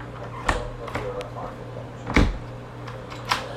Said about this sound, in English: When did your door start acting up like that?